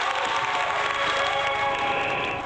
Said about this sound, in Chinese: 好嘞，掌声欢迎。